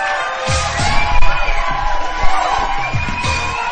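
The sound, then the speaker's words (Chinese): Warm applause with whoops and cheers from a crowd as a host comes out on the show 'Ocean Live Show', a dense steady clatter of clapping that holds at a fairly loud level for several seconds, with a few sharper bangs mixed in. “我一出场有这么热烈的掌声，好难得呀！”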